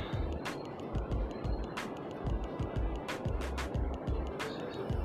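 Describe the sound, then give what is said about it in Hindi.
A small stream, smaller than a river, burbles steadily at night, with bursts of night insects chirping overhead and soft, irregular low thumps underneath, all at a fairly constant moderate level. “ये आवाज़ जो बैकग्राउंड में है ये एक नदी से छोटी जो होती है ना खट खट बोलते हैं हमारे लैंग्वेज में उसकी आवाज़ है और रात को जो इंसेक्ट होते हैं उनकी आवाज़ है चिर पिर और काफ़ी ब्यूटीफुल रात है”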